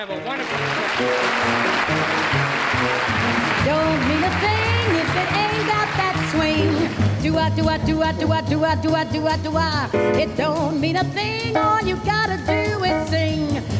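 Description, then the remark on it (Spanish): A swing jazz song with a female singer, played as the first musical piece of the morning, opening under a wash of crowd applause before her lively, bouncing vocal lines and full band take over, loud throughout. “vamos a hacer uno en este momento en nuestra conversación con Ariel Jiménez para escuchar nuestro primer tema musical de la mañana de hoy”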